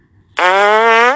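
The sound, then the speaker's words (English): A phone notification goes off: one loud, buzzy, rasping tone that holds steady for under a second, with no talking over it. “I totally own up to it if it was but that was my phone making a notification.”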